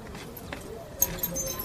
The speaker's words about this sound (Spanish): Nori revolea las llaves.